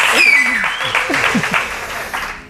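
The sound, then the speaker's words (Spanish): A crowd claps steadily, a dense and sustained wash of applause, while a man talks over it throughout; the clapping holds loud for the whole stretch and thins slightly at the end. “La verdad es que, oye, en mi caso no, pero en vuestro caso son aplausos muy merecidos, ¿eh?”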